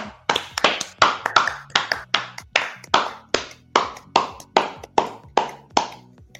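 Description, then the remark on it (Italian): An evening show audience in August applauds with steady, evenly spaced clapping, roughly two sharp, bright claps per second, about a dozen in all, with no voices over it. “Facciamogli un applauso, facciamogli certo.”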